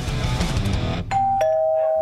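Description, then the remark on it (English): In a Scottish Building Society advert, a doorbell of a new house rings for family arriving for Sunday lunch: a clear two-note ding-dong, a higher tone followed by a slightly lower one that rings on steadily, coming right after about a second of dense, busy noise. “Do you hear that? That's your family coming round to your new house for Sunday lunch.”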